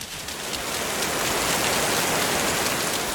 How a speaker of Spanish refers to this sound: La lluvia que trajo la declaración del Felipe a la Élida fue la más fuerte de la temporada.